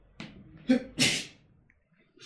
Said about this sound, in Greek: Ήρθε η ώρα να αντέξεις το φτέρνισμα